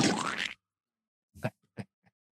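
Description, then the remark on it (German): A voice imitates an electronic access-denied buzzer, the sound telling that one cannot get in after holding up a barcode, with a half-second harsh, buzzy tone, followed after a pause by three short, quieter vocal blips. “du hörst ein Geräusch, welches dir äh, ein elektronisch klingendes Geräusch, welches dir sagt, dass du dort nicht rein kannst.”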